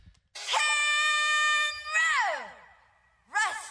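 A female singer lets out a loud, high sustained scream held for over a second, then swoops downward in pitch, followed by a shorter falling cry at the end, with no clear backing music; she sang the line ahead of the rest of the band by mistake.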